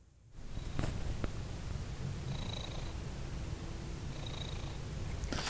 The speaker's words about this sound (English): Maybe you can hear my cat purring here.